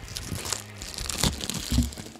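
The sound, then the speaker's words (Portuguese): Packaging crinkles and crunches as a phone box is opened, with irregular rustling bursts and a sharper crackle near the end, no talking. “Pela mágica de ter comprado dois, eu tenho um aqui que eu estou abrindo neste momento.”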